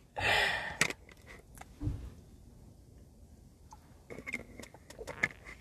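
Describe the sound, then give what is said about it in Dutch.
A quiet slurping sip of water followed by a soft gulp, then faint wet mouth clicks and small handling taps; no one speaks. “Ehm, even een slokje water, want mijn mond wordt heel erg droog.”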